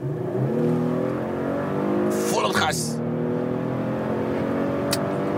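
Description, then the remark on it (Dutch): A turbocharged 3-litre V6 car with 354 hp, in dynamic mode with its exhaust valve open and the automatic in sport mode, accelerates at full throttle from about 60, its engine note climbing steadily in a loud rising drone, with a brief whooshing burst midway as it shifts, then continuing to pull strongly. “Dan gaan we even vanaf, nou het doen, 60 of zo, even vol accelereren.”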